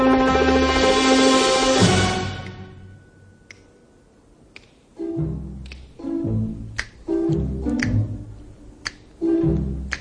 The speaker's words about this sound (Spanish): Tenía unas ganas de saludarte con los chasquidos estos. Yo no me atrevo a hacerlo por si no me sale.